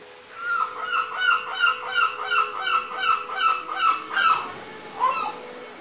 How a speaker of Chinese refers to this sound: 这几天我妈妈带我去美丽的大连看海啦。嗯，我认识了一种在海边生活的美丽的鸟儿，它就是海鸥。呃，后来我发现，海鸥是一种特别喜欢唱歌的鸟儿。嗯，我们一起来听听吧。